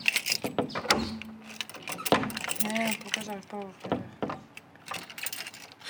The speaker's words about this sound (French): Alors il y a un énorme trousseau de clés parce que c'est une maison où il faut tout, euh, tout barricader. Tu vois, il y a une grosse porte comme ça.